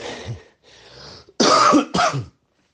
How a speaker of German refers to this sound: Gripostat muss ich nicht mehr nehmen, aber Husten ist halt echt äh, eklig.